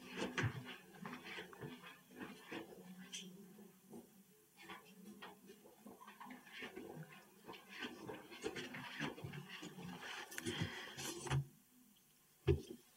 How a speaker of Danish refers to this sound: Vi bøvler lige med et gardin her, der skal trækkes helt for.